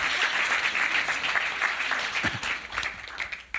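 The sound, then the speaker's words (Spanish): Steady audience applause, a dense crackle of many hands clapping at once, holding strong for a few seconds and thinning slightly at the end. “Démosle un aplauso a los.”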